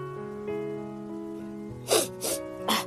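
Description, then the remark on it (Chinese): Three short, breathy honks of an old soldier blowing his nose into a handkerchief, the last two coming in quick succession, over a soft, steady sustained musical tone. “吻完后，他在屋里来回踱步，掏出手帕擤了擤鼻涕。”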